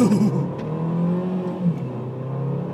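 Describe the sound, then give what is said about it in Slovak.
A car engine revs hard under acceleration, a loud, steady, droning roar whose harmonic whine shifts and climbs across nearly three seconds, with no voices over it. “Zapínam režim eko, lebo toto je moc, moc drsné.”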